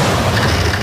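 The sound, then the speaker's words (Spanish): A loud, booming crash of a home antenna being wrecked, a dense rumbling roar with heavy low end that fills the whole brief moment, harsh, with no voices. “destrozando tu antena suena así.”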